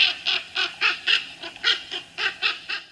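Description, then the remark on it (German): A stressed raven in an intense fight gives a rapid, agitated string of harsh, raspy distress calls, about eleven in close succession, their frequency rising, loud, with no other voices. “Also das war jetzt zum Beispiel eine Sequenz, wo, wo, wo es ein sehr intensiver Kampf war, deswegen sind sehr, sehr viele Rufe aneinandergereiht und die Frequenz geht hoch.”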